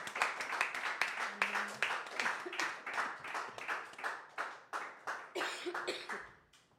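audience applauding

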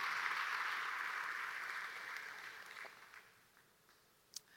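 audience applauding

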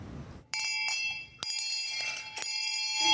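hand bell ringing

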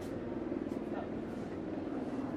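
helicopter approaching

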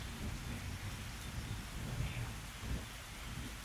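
rain falling

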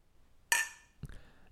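beer glasses clinking

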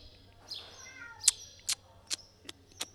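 cat meowing loudly

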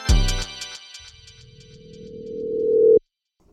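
telephone ringing

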